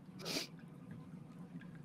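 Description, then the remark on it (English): A single quick, airy sniff through the nose, followed by a low, steady background hum with no talking. “I also want to take a look and then just inadvertently take a sniff.”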